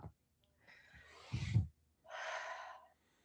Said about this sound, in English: What just happened? I feel like I just relaxed three notches down the dial. Okay. But you know, I didn't tell you to breathe. I just breathed and then you emulated me.